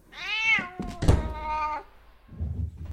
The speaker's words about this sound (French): Chatoun continuait de miauler en grattant.